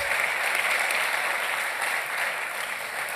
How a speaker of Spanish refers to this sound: Y ese aplauso es para ustedes. 92 personas.